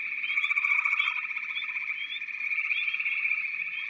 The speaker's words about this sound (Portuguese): O barulho dos outros sapos, essa ladainha, fazem com que você tenha um diálogo interno com você mesmo.